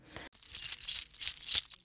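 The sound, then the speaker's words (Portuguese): Metal keys jingle in three or four quick, bright shaking bursts, crisp and clinking, with no voices around them. “Quando a senhora se afastou, João disse a Maria: Maria, consegui pegar as chaves da capa da bruxa.”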